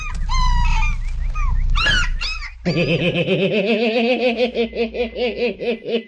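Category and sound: animal, small dog whimpering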